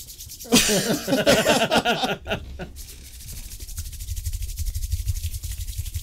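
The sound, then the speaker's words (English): Palms rubbing together as fast as possible until they get hot, a rough, dense friction hiss that starts abruptly and keeps up steadily, with some harsh scraping and a low rumble underneath, no talking. “Except I'm about to use these hands to make a mixtape.”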